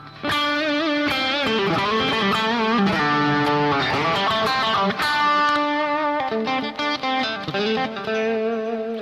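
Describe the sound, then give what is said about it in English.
An electric guitar, switched to its neck pickup position, plays a continuous bluesy phrase with a warm, rounded tone, sustained notes and quick picked runs, loud, with no voices. “If I go all the way up to my neck position,”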